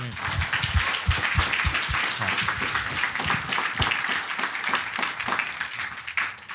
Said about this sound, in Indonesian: Ya, tepuk tangan.